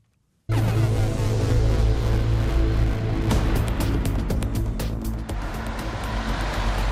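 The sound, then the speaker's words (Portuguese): Steady, loud road traffic on National Road 118, with a continuous low engine rumble as cars and heavy trucks pass by, broken by brief hissing tyre swooshes; no one speaks. “Pela Estrada Nacional 118 circulam diariamente milhares de carros, caminhões e alfaias agrícolas.”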